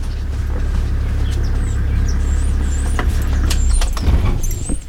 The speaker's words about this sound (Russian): И вот настал час, я сел в джип и поехал в легендарный лагерь Синтимос.